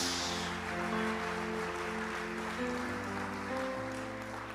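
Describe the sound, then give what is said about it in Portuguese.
An audience claps steadily to applaud the Lord, a dense wash of applause layered over sustained keyboard chords that hold and shift beneath it, with no one speaking. “porque uma palavra de Deus foi liberada sobre a sua vida e a palavra do Senhor se cumpre aplauda o Senhor.”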